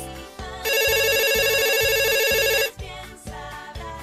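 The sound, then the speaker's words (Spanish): A loud telephone ring with a warbling, evenly pulsing tone lasts about two seconds, set against a rhythmic music background with no one speaking. “A continuación, vamos a escuchar los llamados telefónicos de nuestras familias.”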